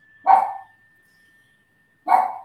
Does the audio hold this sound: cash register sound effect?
no